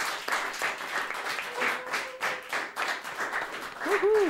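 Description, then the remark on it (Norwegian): A crowd applauds a guest being welcomed, with steady, dense clapping and scattered cheers and whoops throughout, loud, with a rising shout near the end. “Du fikk jubling til og med”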